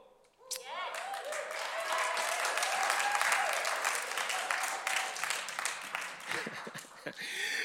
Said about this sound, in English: Here's the thing about the Church of Jesus Christ, and this may deserve just a four second clap after I say it because it's that good.